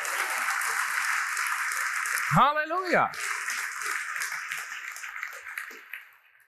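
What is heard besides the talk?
audience applause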